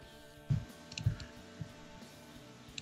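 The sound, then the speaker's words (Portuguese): Three soft computer mouse clicks, evenly spaced about half a second apart, quiet, with a faint background hum and no one talking, made by someone working in Photoshop. “Esse é meu mouse.”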